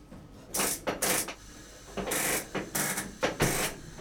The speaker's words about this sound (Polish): Teraz podpalamy gaz. Mamy taką zapalareczkę.